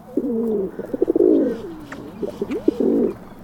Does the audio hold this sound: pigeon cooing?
yes